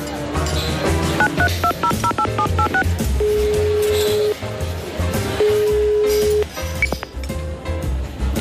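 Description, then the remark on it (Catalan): A rapid run of about ten short dialing beeps on a phone keypad, followed by two long steady ringback tones with a pause between them, over a busy, clattery background. “Passa'm el telèfon, que truco el Canut.”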